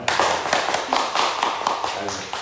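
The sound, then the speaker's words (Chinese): An audience bursts into applause, a dense wash of many hands clapping steadily for a couple of seconds, loud and sustained with a few sharper claps standing out. “哎，漂亮，给他一个掌声。”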